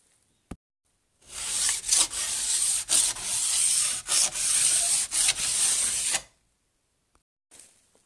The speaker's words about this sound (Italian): È un rumore che chi entra presso Ferraischi Service ha già sentito. Beh, è il rumore della lima che affila le lamine dei sci magari anche dei tuoi C che sei venuto a riparare.